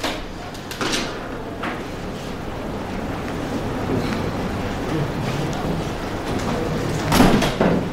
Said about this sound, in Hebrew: תשבי ותפתחי את הדלת.